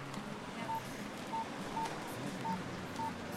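Five short, evenly spaced keypad tones beep as a mobile phone number is dialed, each brief and clear over a low, steady background hum.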